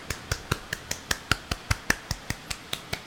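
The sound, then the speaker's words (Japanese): A quick, steady run of about fifteen sharp hand claps, evenly spaced at roughly five per second, fairly soft, heard from one side of the stereo field as a demonstration of stereo sound, with no voices alongside them. “今ステレオにしているので音って例えばちょっとこの音イヤホンつけないと分かんないかもしれないけど片側からのみ聞こえてると思います片側に寄ってで逆側で手叩くとこんな感じ”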